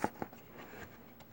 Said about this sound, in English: Say, Bert, what's what's that? What's that rustling in the grass?